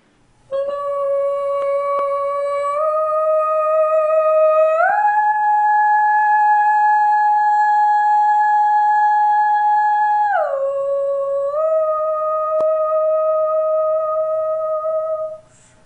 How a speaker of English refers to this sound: Here's our winner of the soprano solo.